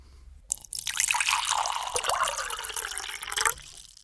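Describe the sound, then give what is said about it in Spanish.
Water pours steadily into a glass for about three seconds, fairly loud, with the splashing pitch shifting as it fills, then stopping abruptly; a glass of water poured for drinking. No one speaks. “Momento para tomar un poquito más de agua, ¿te parece?”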